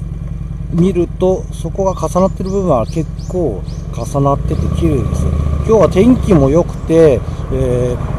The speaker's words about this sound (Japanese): えー、桜通りが続いております。その桜通りを、えー、今、オートバイでその下を、中を走ってます。